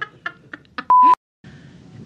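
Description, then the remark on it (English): A cell phone rings with a quick run of four short electronic chirps, then a loud steady beep cuts in, followed by a brief silence and low background murmur. “Someone forgot to turn off their cell phone.”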